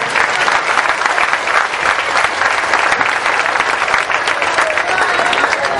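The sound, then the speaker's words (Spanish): A crowd bursts into loud, sustained applause for the absent engineer Carlos Pareja, so that he can hear it from afar. Dense rapid clapping fills the whole stretch without pause, with a faint murmur of voices mixed into the ovation. “y no pudo estar por una reunión que tiene con el presidente de la República, el ingeniero Carlos Pareja, que ha sido mi mentor, a quien le pido a ustedes todos que no esté presente aquí un fuerte aplauso para que él nos pueda escuchar a la distancia.”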